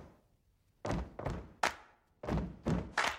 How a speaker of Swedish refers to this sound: Med det här med stompet och klappet och så vidare. Stamp to this beat. Come on. Now I want you to clap on the third beat.